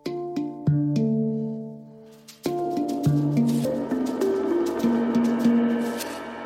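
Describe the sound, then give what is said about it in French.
A short instrumental musical break in a radio interview: a clear melody of plucked, ringing notes that shift in pitch, with a brief pause before the tune resumes more fully. No one speaks. “On se retrouve après une pause musicale avec Dominique No sur RZN Radio.”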